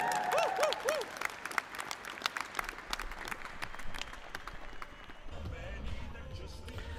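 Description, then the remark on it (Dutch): An audience at an evening of live performances before a film screening applauds a performer loudly and steadily for several seconds, dense clapping with a few shrill whistles rising and falling early on, then the clapping thins slightly toward the end. “Uh, over een kwartiertje begint de film, maar voor nu mag ik dan nog één keer een heel groot applaus met alle succes voor volgend jaar”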